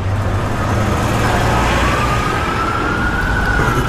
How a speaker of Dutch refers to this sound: Dat, is... dat is een dreun in je oren. Ja. Sirenes zijn overal en het, er klinkt geen enkele stad als New York dat is zo.